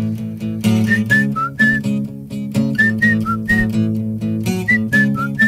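A person whistles a bright, clear tune in short repeated phrases of a few notes each, prominent over steady instrumental music playing underneath.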